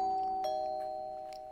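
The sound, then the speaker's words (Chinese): An intercom doorbell at a house gate is pressed by a visitor and rings out a two-tone chime, a bright electronic note shifting to a second slightly lower one that hums steadily as it slowly fades. No voices. “内海勋按响了对讲门铃。”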